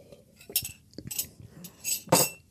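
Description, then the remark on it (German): During a coffee break, porcelain coffee cups and cutlery clink against each other in a series of short, bright, irregular knocks and scrapes, with no talking. “Dramatische Kaffeetrinkpause.”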